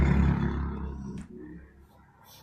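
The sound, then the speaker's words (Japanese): A loud, low engine roar from a motorcycle passing by outside dominates the start, then fades away over a couple of seconds, with no talking. “ちょいちょいバイク今日うるさいのよ。”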